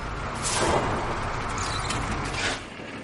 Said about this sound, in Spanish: La familia circula en el autobús. Paran ante una mansión.